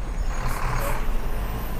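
A bus rumbles past nearby with a steady low engine drone, and two short hissing bursts of air brakes cut through the noise.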